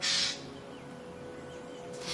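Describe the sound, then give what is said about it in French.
A Eurasian jay gives two harsh, raspy alarm screeches with no danger around, one at the start and another just beginning at the end, over a faint steady outdoor hum. “J'aimais de toute mon intensité mes sons de détresse.”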